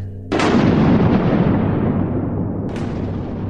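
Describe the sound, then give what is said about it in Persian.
A sudden, very loud thunderclap from a large lightning strike bursts in and rumbles on, followed by a second sharp crack near the end, booming heavily with no voices present. “یه دفعه یه رد و برق بزرگتر زد”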